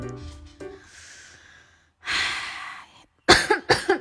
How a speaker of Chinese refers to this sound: 哎呀，有点咳嗽